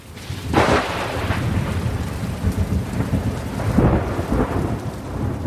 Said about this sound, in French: Mais quand il pleut, quand il pleut, c'est pire.